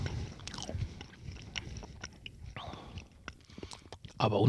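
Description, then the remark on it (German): Crisp crunching of someone biting and chewing a sugary Neapolitan wafer cookie, with irregular brittle snaps and soft mouth noises, plus a hushed, whispery voice murmuring intermittently. “Auch die Waffel schon, die so mit Zucker zersetzt, die knuspert, äh, ich meine, ist toll, aber selbst die Waffel.”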